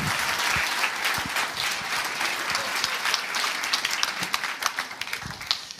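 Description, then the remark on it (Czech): An audience applauds steadily to welcome their pastor as the next speaker, a dense wash of many hands clapping at once that holds strong throughout, with a few sharper individual claps standing out near the end. “Veľký potlesk, náš pastor milovaný.”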